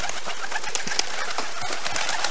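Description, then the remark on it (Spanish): Doves cooing in a dense, steady chorus, fairly loud, with a busy rustling texture running underneath throughout and no voices. “Soñé que yo hablaba y que de mi boca salían palabras que se transformaban en palomas.”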